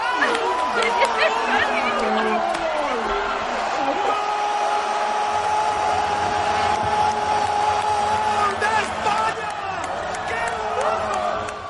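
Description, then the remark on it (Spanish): A crowd of neighbours cheers and shouts continuously, celebrating a football goal, a dense, steady roar of many overlapping voices with individual yells rising above it, loud throughout the whole stretch. “Los vecinos lo celebran.”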